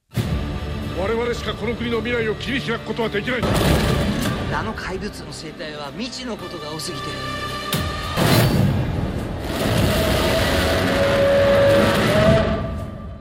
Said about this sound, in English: That is a giant roar that is from the Godzilla Minus One trailer